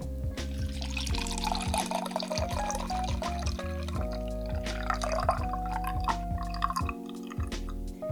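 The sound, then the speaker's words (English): Liquid trickles and splashes steadily into a glass for several seconds, a continuous pour as a French martini cocktail of Chambord and pineapple juice, shaken for about 20 seconds, is strained, with soft background music underneath and no talking. “and we're going to strain into our glass here.”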